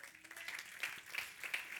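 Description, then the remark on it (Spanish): An audience applauds for the Lord in the morning, a steady, dense patter of many hands clapping at once with a few brighter swells, fairly soft overall and without anyone speaking. “¿Cuánto le dan un aplauso al Señor esta mañana?”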